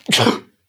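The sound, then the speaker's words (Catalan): A single sudden sneeze, performed as part of a dialogue: a loud explosive burst with a hissy, breathy spray that fades within half a second, followed by silence. “un estornut feit.”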